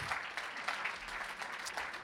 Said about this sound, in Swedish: Amen. Kom fram här allihop. Ge dem en applåd.